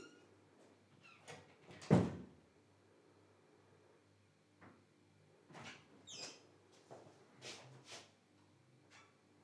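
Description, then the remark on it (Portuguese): A door is shut with a sharp, loud thud, then several seconds later it is opened again with softer creaks, clicks and handle rattles. “Calma, calma, espera aí, agora vou fechar, depois vou abrir.”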